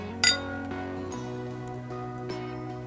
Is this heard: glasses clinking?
yes